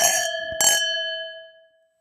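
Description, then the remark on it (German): Wine glasses clink together twice in a toast among three people, two bright strikes about half a second apart, leaving a clear high ringing tone that fades away over the next second. No one speaks. “Und jetzt zu dritt endlich mal anstoßen.”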